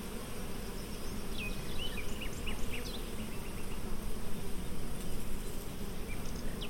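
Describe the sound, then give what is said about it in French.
A dense, steady hum of many bees buzzing around a hive, continuous throughout, with faint bird chirps flickering in the background. No one speaks. “C'est à cause de ce rapport à la ruche, on est obligé euh, d'être posé, calme, de faire attention à son geste.”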